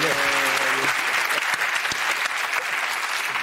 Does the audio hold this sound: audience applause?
yes